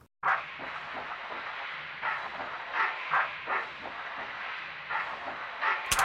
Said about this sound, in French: Et il y a justement une deuxième texture qui arrive par dessus, qui pour le coup est presque bruit blanc.